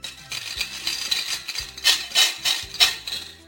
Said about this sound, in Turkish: Halbuki bozuk para kumbaralarını sallaya sallaya ritim tutmak ne kadar da keyifli.